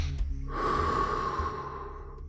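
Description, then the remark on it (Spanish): A long, deep exhale during a breathing exercise, after air is drawn into the belly and chest, rushes out abruptly and trails off over about two seconds, with no talking. “Aire a la panza, aire al pecho y déjalo ir.”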